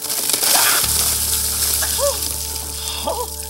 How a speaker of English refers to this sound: Being an amphibian, it turns out that evidently getting drenched by freezing cold water could actually make me go totally dormant and my heart could stop.